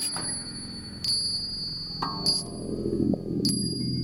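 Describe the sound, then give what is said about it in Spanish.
Church bells ring in a steady sequence, a new strike about every second, each bright clang hanging on and overlapping the next, with a low rumble underneath. “En Londres hay un hombre que grita cuando tañen las campanas de la iglesia.”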